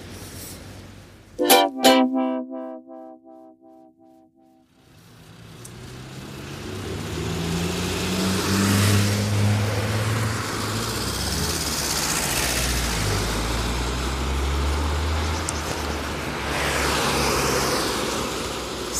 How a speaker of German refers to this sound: Es wird mir jetzt hier doch zu laut, zu viele Autos.